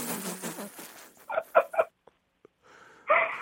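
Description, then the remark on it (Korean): A 16-year-old middle school student's voice imitates a Thai elephant's trumpet: a breathy, rushing start, then three short, shrill nasal blasts in quick succession, a pause with faint clicks, and one more squealing blast. “태국 태국 코끼리.”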